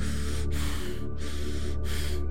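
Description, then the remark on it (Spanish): A voice imitates heavy snorting breaths: three forceful, breathy huffs in quick succession, fairly loud, with brief pauses between them. “Siento una respiración del lado izquierdo como bufando, así un”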